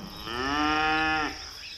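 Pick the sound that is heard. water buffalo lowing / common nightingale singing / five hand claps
water buffalo lowing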